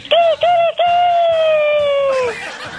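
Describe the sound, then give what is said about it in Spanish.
A person imitates a rooster's crow: three quick, high-pitched voiced syllables followed by one long, loud, sustained note that slides gently downward before breaking off. “porque a partir del primero de mayo, cuando cante el gallo, no tengo gallo, a ver canta, ¿cómo cantan los gallos?”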